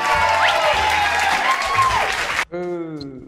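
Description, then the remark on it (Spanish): Loud, dense applause from a crowd fills the first two and a half seconds, with a few whistles rising over it, then cuts off abruptly as a single voice begins speaking. “¡Un fuerte aplauso!”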